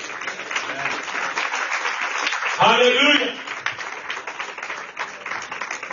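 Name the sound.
audience applause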